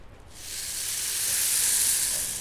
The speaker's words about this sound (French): Le Kayambe qui est magnifique, le son du Kayambe. Écoutez le son du Kayambe, tiens.